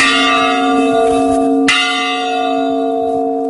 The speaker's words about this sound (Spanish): Esta mujer no puede ocultar las lágrimas cuando, 50 años después, las mismas campanas bajo las que se refugió la noche en la que perdió a su padre y sus hermanos volvieron a tocar a muerto.